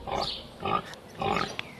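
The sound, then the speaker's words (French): A pig grunts and oinks in three short, throaty bursts with brief pauses between them, moderately loud, with no other sounds around. “Alors, partant de vache maigre, quand il n'a pas trop d'occupation, en politique, Fouché va se mettre à élever des porcs.”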